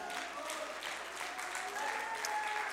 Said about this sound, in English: Clap your hands again unto the Lord.